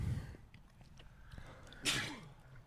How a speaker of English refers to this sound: Jesus. I just sneezed all over the fucking road.